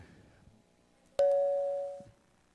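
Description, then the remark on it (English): A single clear ding chime, played when a presentation slide on an overhead screen is advanced with the arrow key to signal a slide change, rings out after a moment of quiet room noise, a bright sustained tone that lingers for nearly a second before cutting off. “kind of hear a there, there'll be a kind of a ding that that will go.”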